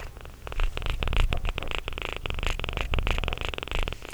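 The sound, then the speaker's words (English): A cat purrs close to the microphone, a steady low rumble with a rhythmic pulsing texture that continues throughout, with no voices present. “Want them to hear the purring.”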